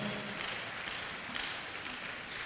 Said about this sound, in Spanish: Déselo al Señor si se lo va a dar ese aplauso, por favor.